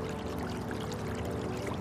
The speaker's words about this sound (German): Auf der rechten Seite unseres Weges fließt ein kleiner Bach entlang. Er begleitet uns auf unserer Reise und plätschert leise vor sich hin.